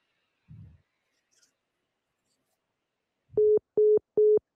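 A low clunk, like a handset being set down, is followed by three short, evenly spaced electronic beeps of a phone's disconnect tone, loud and clear with no one talking.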